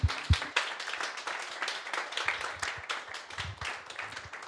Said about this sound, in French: Est-ce qu'on peut applaudir Saint-Esprit